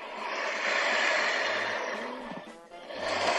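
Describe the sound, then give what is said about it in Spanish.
Air pushed by the bellows in the middle of an accordion: a steady, breathy whoosh of rushing air that swells, dips briefly near the end, then surges again, with faint low tonal hums underneath. “es aire. El acordeón tiene en su parte de en medio un fuelle que nos ayuda a empujar aire.”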